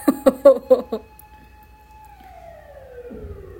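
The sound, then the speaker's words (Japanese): An emergency vehicle siren wails outside, holding a steady tone before sliding down in pitch as it passes by at a moderate distance, with a few brief vocal sounds at the start. “なんだい消防車の音もう物騒。”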